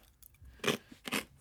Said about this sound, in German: Ich esse in der äh, Zeit mal noch so einen äh, Keks, ja, während du googelst.